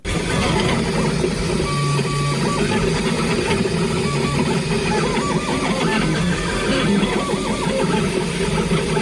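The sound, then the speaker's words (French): A 3D printer runs steadily, printing a part of a protective face shield, its stepper motors whining and buzzing in short shifting tones over a constant mechanical whir, with no voices present. “Ce bruit que vous entendez, c'est celui d'une imprimante 3D.”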